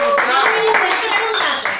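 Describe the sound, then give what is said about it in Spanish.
Steady applause from a group: dense, even clapping that fills the whole two seconds. It stays loud throughout, with voices calling out over it, then eases slightly at the end. “Venga, aplauso que hice la tarea.”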